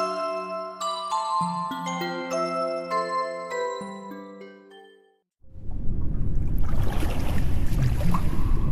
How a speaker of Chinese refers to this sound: 耳边全是肺部的气体被挤压进水中时发出的声音。眼前满满的都是白色，那是自己呼出的气泡。